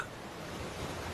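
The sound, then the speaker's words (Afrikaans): Calm sea waves lap gently in a steady, hissing wash, a soft continuous rush of water at moderate loudness with no voices. “Sy luister na die rustige geklots van die see.”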